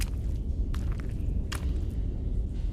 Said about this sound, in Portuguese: Parece que alguma coisa aconteceu, tem sangue aqui. Ele vai pisando assim e indo na direção da porta.